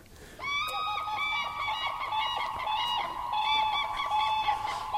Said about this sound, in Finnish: Kurjen ääntä. Joo. Mikä kaiku. Siinä on kyllä hieno ääni tuossa.